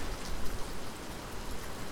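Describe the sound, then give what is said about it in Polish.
Steady rain falls outdoors at the edge of the village of Trześcianka, a continuous dense patter of drops spread evenly across the whole stretch with no voices, moderately loud. “A u nas cały czas pada.”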